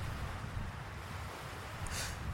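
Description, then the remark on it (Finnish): Strong wind buffets the microphone with a steady, deep rumble while sea waves wash continuously along the shore in front of a lighthouse. No voices, just a constant, full roar of wind and surf. “Aalloista näkee tuulen olevan vähintään kaksin verroin kovempi kuin kolme päivää sitten.”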